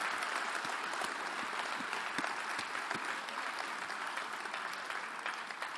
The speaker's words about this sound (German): Gib mal einen Applaus für unsere Übersetzer. Sechs Sprachen.